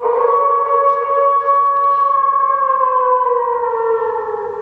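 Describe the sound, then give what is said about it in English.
A person lets out a loud imitation of a wolf howl, one long unbroken wail held for several seconds that slowly sinks in pitch toward the end. “Fellow members of the Wolf Pack, we salute you.”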